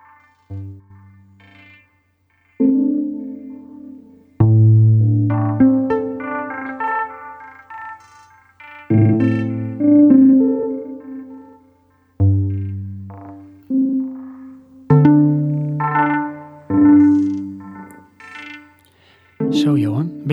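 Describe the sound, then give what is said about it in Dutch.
A recording from a Mars lander: a sequence of bright, plinking electronic tones arrives in irregular bursts of stacked notes, some held and some clipped short, giving a sparse, signal-like pattern like Morse code, with no one speaking. “Eh, plik, plik, plik, Inderdaad, ik hoor wel heel veel. Uh, alsof het een Morse communicatie is.”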